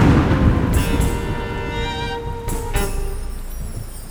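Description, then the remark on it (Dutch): A loud thunderclap as lightning strikes during a thunderstorm right above a house: sharp crackling bursts over a heavy, continuous low rumble, with a thin high whine ringing through it. “De donderslag snijdt net niet mijn trommelvliezen stuk.”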